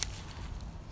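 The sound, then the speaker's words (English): A dog rummages through dry leaves, making a steady, scratchy rustle with soft crunching and shuffling, fairly quiet and continuous throughout. “that sound is our dog rummaging around in the leaves.”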